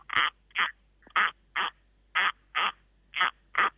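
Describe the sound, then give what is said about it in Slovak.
A corncrake's call, a bird heard in meadows, imitated by scraping a comb across a matchbox: loud, dry rasping bursts repeated in a steady paired rhythm, alone with no talking. “A ešte tam môžeme teraz počuť na lúkach jeden pekný zvuk, ktorý napodobním na zápalkovej krabičke a na hrebení.”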